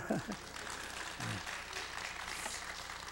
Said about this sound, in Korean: 나는 아멘 할 줄 알았더니 박수를 쳐주네.